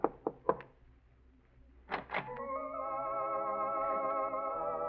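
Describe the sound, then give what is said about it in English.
Light knocking on an apartment door in a modest apartment building on Fountain Avenue near Cahuenga: a quick cluster of soft raps, a short pause, then a few more, after which a steady sustained musical tone rises and holds. “Curious but still cautious, you knock lightly on the door.”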